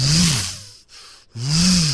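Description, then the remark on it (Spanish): A voice imitates the motor of a gym machine, one where you sit, hold a cable handle and lean back, with two loud, breathy, buzzing rumbles, each rising and falling slightly in pitch, separated by a short silent pause. “Te sientas y te vas para atrás con todo y el así y se oye como un moto un rumfador. Así.”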